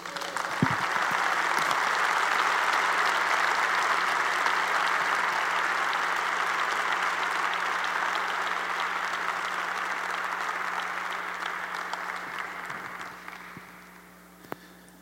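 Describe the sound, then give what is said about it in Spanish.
A large audience breaks into sustained, dense applause for Jesus that holds steady for about thirteen seconds before tapering off into a few scattered claps. “¿Cuántos pueden aplaudirle a Jesús?”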